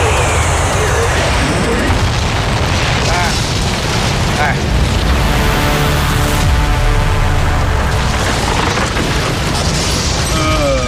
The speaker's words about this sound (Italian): Eh no. L'aereo è precipitato e io ora.